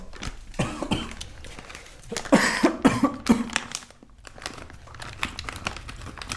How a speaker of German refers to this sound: Es ist nicht scharf, es ist immer, ich muss übel husten die ganze Zeit.